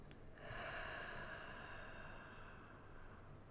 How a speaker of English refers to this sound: So let's do that together right now. So I'm not going to count, just count in your heads already. Breathing in, hold, breathing out.